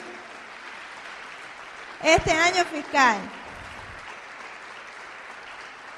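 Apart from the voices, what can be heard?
audience applause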